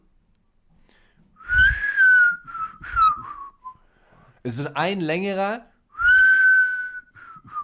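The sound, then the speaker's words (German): A person whistles an imitation of a bird call: a few short, bright whistled notes, then a brief spoken phrase, followed by a longer, steady whistled tone. “Es ist äh, auch extra gepfiffen, weil es.”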